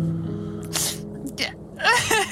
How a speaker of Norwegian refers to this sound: Hvorfor gråter du, …? Fordi, fordi, fordi jeg hadde det var gøy med Frazy Frog, og så kom jeg og jeg hadde tungen hans, og så spiste han den.